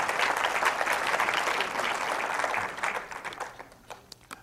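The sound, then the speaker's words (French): A crowd applauds with dense, steady clapping that holds strong for about three seconds, then thins out into scattered individual claps as it fades. “Oui, ça mérite tout de même l'applaudissement.”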